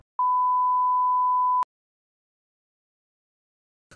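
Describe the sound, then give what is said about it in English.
A single steady, high-pitched censor bleep holds for about a second and a half, loud and clean, with no voices audible beneath it before it cuts off abruptly. “We talked about blurring that.”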